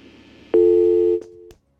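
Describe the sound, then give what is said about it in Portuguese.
A telephone busy tone after a dropped call: one loud, steady electronic beep that drops in volume, holds briefly, then cuts off with a click over faint line hiss. No one speaks. “Caiu a ligação?”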